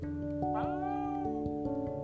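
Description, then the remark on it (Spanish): A single drawn-out meow from a pet cat named Manny, held up while its belly is rubbed, rises and bends in pitch over a steady low musical hum, fairly loud, with no voices. “Maulló mientras le frotaban la pancita.”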